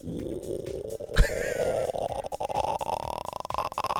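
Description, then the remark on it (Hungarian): A voice imitates a stomach rumble: a continuous gurgling, growling drone lasting several seconds, rising slowly in pitch, with a brief pop near the start and no talking. “A Minnesota szurkolók emlékgyomra korog.”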